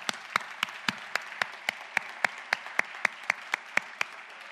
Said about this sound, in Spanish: Dáselo fuerte el aplauso al Señor.